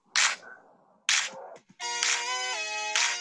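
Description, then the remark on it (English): Two sharp, bright whooshing bursts, then a loud electronic theme tune, cued live, with sustained, buzzy synth tones that shift pitch in steps and carry on to the end. No one speaks. “So I'm going to cue the theme music.”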